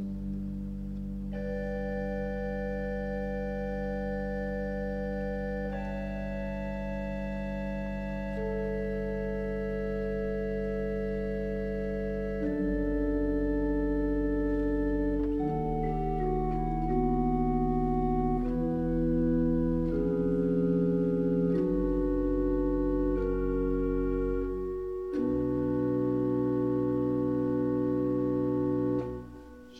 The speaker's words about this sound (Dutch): En dan komt het, sprak hij zu seinen en als een soort stralenkrans wordt dan de strijkersbegeleiding neergelegd. Klinkt zo, zonder de solist.